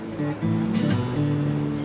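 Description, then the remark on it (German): A boat's engine drones steadily with low harmonic hum while waves and water splash around the hull as it heads out into the Atlantic waters off Noronha, a continuous motor-and-sea sound throughout. “Mit Leos Boot fahren wir raus, in die Atlantikgewässer vor Noronha.”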